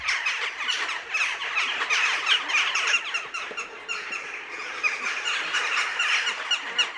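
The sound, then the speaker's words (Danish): A flock of jackdaws calling nonstop, a dense chorus of short, squeaky, high-pitched chirps overlapping throughout at a fairly steady loudness, with no talking. “Og det lyder jo meget som at slå øh, smut på sådan en frossen sø, ikke?”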